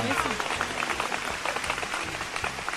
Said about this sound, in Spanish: Dice un aplauso. Un aplauso este, para... Dice, para todas las mamás que trabajamos, salimos arregladitas de la casa con lonche para los niños, para el esposo y listas para una gran jornada laboral, ¿eh?